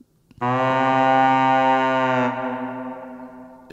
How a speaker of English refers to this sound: originally the horn sound like that and then